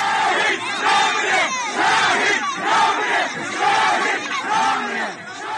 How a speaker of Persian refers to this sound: حالا کاروان او راهی شده و مردم هستند که فریاد میزنند شهید نمیمیرد.